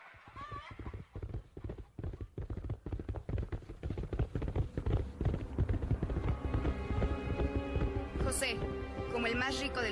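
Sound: horse hooves clip-clopping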